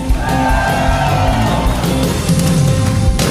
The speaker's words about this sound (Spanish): Alguien puede dar un grito de júbilo.